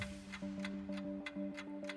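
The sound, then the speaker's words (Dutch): The strict pitch timer clock on Droomstart ticks steadily, roughly three ticks per second, crisp, over a constant low tonal hum. Nobody speaks. “Als je er klaar voor bent, dan ga ik die strenge klok aanzetten.”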